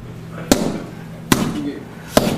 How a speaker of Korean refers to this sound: 어, 샌드백 치고 있습니다, 지금. 네. 네. 무슨 챔피언 결정전에 나갈 선수 같죠? 샌드백을 치고 있는 이 샌드백 소리가 오늘 보물 소리입니다.